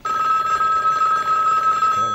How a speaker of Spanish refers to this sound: Un segundito parece que me están llamando por teléfono, no colgarme. Vale, tranquilo. Vaya teléfono de los años 33, ¿eh? Hombre, que no tenemos dinero para más. ¿Quién será hasta ahora?